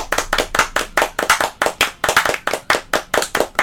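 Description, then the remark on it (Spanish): Rapid, rhythmic hand clapping in a Gypsy rumba palmas pattern, fairly loud, with overlapping claps from more than one person in a loose, slightly uneven groove. “Estaba intentando hacer unas palmas rumberas gitanas”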